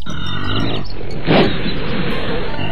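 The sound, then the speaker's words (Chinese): A jaguar roars, a deep, raspy growl that fills the whole clip and swells louder for a moment midway before rumbling on. No one speaks. “随后，他又高声吼叫”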